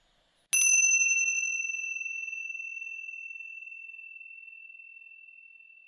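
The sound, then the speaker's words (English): A single struck meditation chime rings out clearly during a guided meditation, its bright, pure tone sustaining and slowly fading over several seconds into silence. “I just encourage you when you hear the chime to notice that the sound arises out of the silence and it returns to the silence.”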